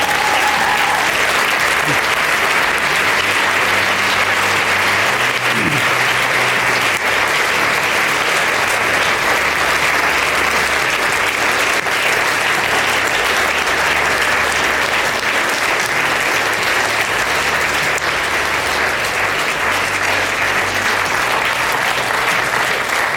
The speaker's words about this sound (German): Ich wünsche mir, gebt doch denen einfach mal einen Applaus, der da vorne steht.